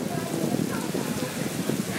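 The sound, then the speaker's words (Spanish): Steady rain falls in Hermosillo, Mexico, a dense, even hiss of drops with no pauses, while a muffled voice murmurs faintly underneath. “O sea, bueno, que, no les gusta llover, que no les gusta que llueva acá.”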